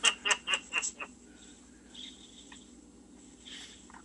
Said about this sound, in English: … goes making all kinds of noise with his cinnamon toast crunch over there